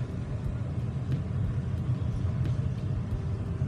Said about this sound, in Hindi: माल से लड़ा हुआ ट्रक जा रहा है जिसको त्रिपाल से ढका हुआ है ताकि माल ना भीगे